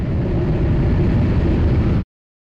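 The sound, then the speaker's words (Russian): A recording of a jet engine, found in the souvenir shop at Boeing headquarters: a loud, steady roar with a deep rumbling low end and broad hiss, running unbroken for about two seconds before cutting off abruptly into silence. “Любимым экземпляром в этой коллекции стали записи с сырьевым реактивных двигателей, которые один из ученых откопал в сувенирном магазине при главном офисе Боинга.”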